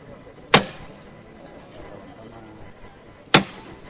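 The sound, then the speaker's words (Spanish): Two sharp, loud knocks of a procession float's hammer signalling the costaleros (bearers) as they change over, nearly three seconds apart, each a single crisp strike over a low, steady murmur of background noise. “Golpe de martillo.”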